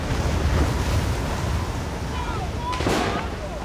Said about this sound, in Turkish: O sırada tekne kıyıdan bir hayli uzakta dalgalarla boğuşuyordu. Çünkü rüzgar karşı yönden esiyordu.